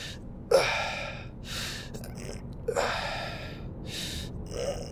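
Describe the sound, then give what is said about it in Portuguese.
A voice imitates the effortful mouth noises someone makes while putting on shoes: a series of sharp gasping, huffing breaths and puffs in an irregular rhythm, moderately loud, with no speech. “A minha mãe, imagina, a calçar-se, faz barulhos com a boca, tipo faz.”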